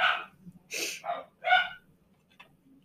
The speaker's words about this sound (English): Sorry about dogs. They're not going to stop.